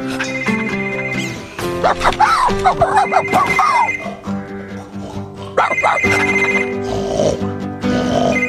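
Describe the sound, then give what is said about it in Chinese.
Bob's mobile phone ringtone plays as the phone is called from another phone to find it. It is a bright, repeating electronic melody of sustained tones, loud and continuous for several seconds, with no talking over it. “哦，听见铃声了。”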